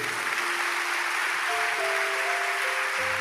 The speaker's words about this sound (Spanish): Si quiere, darle un aplauso a Él porque lo merece.